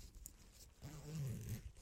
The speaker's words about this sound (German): zack, das ist der Reißverschluss um den Stiel.